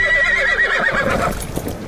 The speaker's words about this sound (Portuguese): Então vocês observam de repente o Rodolfo se transformando num cavalo, saindo a galope, parando ali do lado do buzinário, buzinário subindo em cima do, do Rodolfo e ele continua a cavalo montado, fugindo e levando o Buzinaro em suas costas,